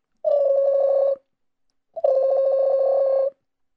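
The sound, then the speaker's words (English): A telephone rings twice, each ring a loud, warbling electronic trill lasting about a second, separated by a short silent pause. No voices are heard. “And suddenly that phone call came.”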